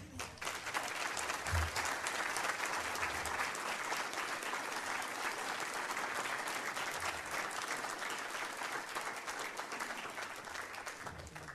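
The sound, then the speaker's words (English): Sustained applause from a large audience welcoming the speaker and author Kenneth Ulmer, a dense wash of clapping that stays steady and loud for about eleven seconds without any talking over it. “Would you welcome Kenneth Ulmer?”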